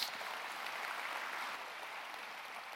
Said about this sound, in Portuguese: Quem pode aplaudir o Senhor por isso? Glória a Deus.